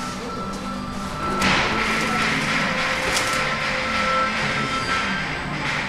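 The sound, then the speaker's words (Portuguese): Dozens of forklifts loading goods non-stop in the warehouse of Luís Simões, a transport company in Carregado, 40 km north of Lisbon: a steady mechanical rumble and whine with a thin, sustained beep-like tone, broken by scattered clunks and thuds, with no talking. “No armazém, dezenas de empilhadores carregam mercadorias sem parar.”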